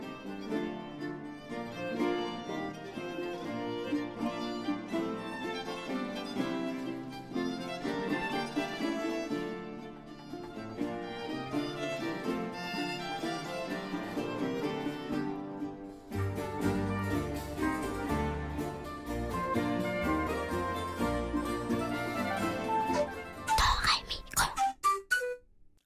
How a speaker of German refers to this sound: Und solche Musik konnte der große Himmelsforscher hören. Hier ein Tanz von einem Italiener mit dem Namen Claudio Monteverdi.